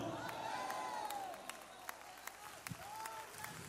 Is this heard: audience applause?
yes